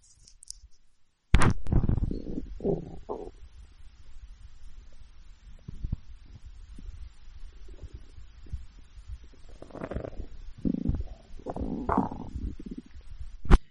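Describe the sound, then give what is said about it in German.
Close-up gurgling stomach rumbles recorded with a microphone held to a person's upper belly, a sharp thump at the start followed by low, bubbly churning and squelching bursts that swell and fade irregularly, with no talking. “Das war live aus dem, aus dem Unterleib”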